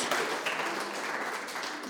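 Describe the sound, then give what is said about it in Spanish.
A church audience breaks into loud, sustained applause for the Lord, many hands clapping at once in a dense, steady wash of sound with no individual claps standing out and no clear voices. “Denle un fuerte aplauso al Señor, hermano.”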